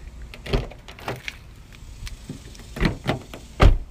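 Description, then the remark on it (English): Car door locks clunking shut inside a vehicle, a series of sharp mechanical thunks and clicks spaced irregularly, moderately loud, with no talking. “sorry, I'm like making sure the doors are locked.”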